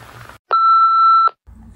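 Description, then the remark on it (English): A single steady electronic beep of a bit under a second, loud and clean, an answering machine tone, framed by brief pauses and faint background noise on either side. “So please leave a message after the beep and when I stop crying, I'll try to call you back.”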